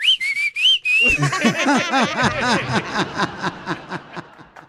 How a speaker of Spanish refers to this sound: Todos en la familia tenemos un silbido que nos identifica al cómo llamarle a un hijo o una hija. O cuando ya estás hartos de todos.